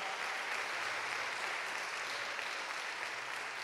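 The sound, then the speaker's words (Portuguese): An audience applauds the Lord with dense, continuous clapping that stays steady and fairly loud for several seconds, the individual claps blurring into an even roar with no voices standing out. “Se você puder, aplaudo o Senhor aí onde você está porque Ele está se movendo neste lugar.”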